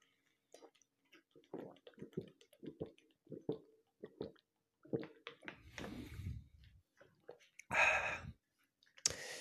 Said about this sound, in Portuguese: Deixa eu só tomar um gole d'água aqui primeiro.